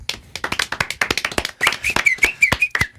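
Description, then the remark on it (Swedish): A brief, half-hearted round of applause: a few hands clapping in a steady, loose patter for about three seconds, with a thin, high whistling tone drifting in during the second half. “Lite så här halv avslagen applåd.”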